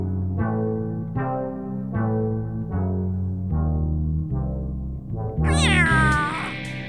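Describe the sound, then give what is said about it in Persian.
A cat meows repeatedly in a steady series of drawn-out, harmonic cries, fairly loud, ending with a sharper, higher-pitched wail. No one speaks. “گربه های شهری و بی سرپناه همون گربه های مرموز که گاهی میبینیمشون تو خیابون از پشت یه دیوار سرک میکشن یا وارد حیات خونه هامون میشن”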